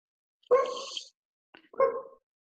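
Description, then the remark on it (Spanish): A neighbors' dog across the street barks twice, two drawn-out, slightly whiny barks separated by a short pause, with nothing else audible and no one speaking. “Pinochet se llama el perro. No, no sé cómo se llama. son los de enfrente.”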